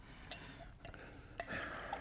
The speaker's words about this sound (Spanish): Alcánzame la jarra del agua. Espera, yo te serviré.